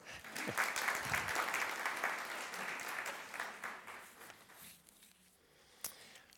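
An audience at a church service applauds steadily, a dense crackle of many hands clapping for about five seconds before it thins out and fades, ending with a lone sharp clap.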